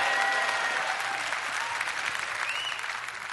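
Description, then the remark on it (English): An audience bursts into sustained applause, given as a clap offering to God during a sermon: dense steady clapping mixed with a few faint whoops and shouts, holding loud and even throughout. “Somebody give our mighty God a clap offering.”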